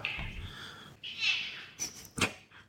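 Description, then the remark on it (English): A cat meows two or three times in quick succession, high and drawn-out with a falling pitch, followed by a couple of short sharp clicks; not loud, with no talking. “Damn it, The cat is meowing.”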